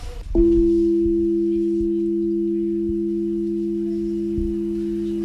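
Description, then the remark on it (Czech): A key press on a molecular piano at the Institute of Organic Chemistry and Biochemistry of the Academy of Sciences plays the sound of one molecule: a steady synthesized tone, several pure pitches layered into one humming chord that sustains without fading, with a few faint clicks underneath and no voices. “Tak, tak tohle je zvuk jedné molekuly.”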